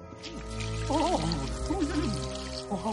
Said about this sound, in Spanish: Rocinante llega hasta un pequeño claro entre los árboles, mira a un lado y al otro, está solo, levanta la pata para hacer pis.